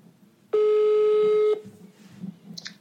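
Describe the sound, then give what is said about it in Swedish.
A single loud, steady phone ringback tone sounds for about a second as a call is placed, then cuts off, leaving faint background noise and a few soft clicks. “Så vi ringer upp henne nu”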